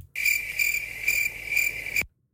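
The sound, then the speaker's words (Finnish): Steady grasshopper chirping fills the scene, a high continuous trill pulsing in four regular swells, prominent, then cutting off abruptly after about two seconds. “Pelkkää, pelkkää heinäsirkkojen sirnää ei kukaan ei keksinyt mitään hyvää.”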